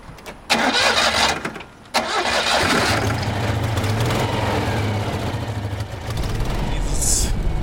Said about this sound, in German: klappert was, also es ist halt eine Ente. Ja? Also es ist ein bisschen untermotorisiert. Und deswegen muss man ein bisschen mehr Gas geben und sonst entspannt.